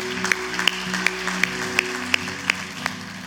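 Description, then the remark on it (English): Steady rhythmic clapping from an audience at New Song Church after a prayer, about nine sharp claps at an even beat, over a soft sustained low musical drone. “Let's give him a hand.”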